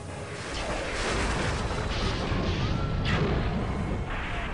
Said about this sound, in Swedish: Ilskna moln tornade sig och omslöt hela jorden. Blixtrar blixtrade och åskan dundrade.